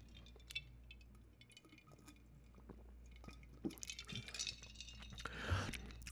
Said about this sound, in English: Pardon me as I take a sip of my drink.